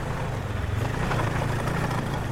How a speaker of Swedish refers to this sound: efter ungefär 40 minuter hörde jag hennes skoter komma brummande genom skogen.